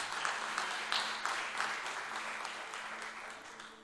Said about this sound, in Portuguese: Aplauda o nome do Senhor Jesus.